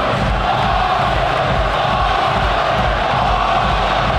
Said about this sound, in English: You can probably hear the Arsenal fans. It's hard to tell though because of uh, well the red shirts everywhere because the red shirts could, could be Bayern and they could be Arsenal.